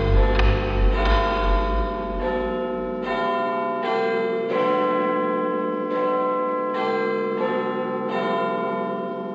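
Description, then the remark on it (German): A church bell chimes repeatedly in a steady, slow rhythm, each ding-dong strike ringing out loudly with long overlapping resonance and no voices. “Ding dong dong dong dong dong dong dong.”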